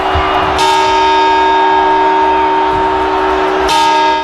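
A large clock bell chimes twice for the New Year's Eve campanadas in Soria, Spain, celebrated early with torreznos instead of grapes, about three seconds apart, each loud strike followed by a long, humming resonance that rings on into the next.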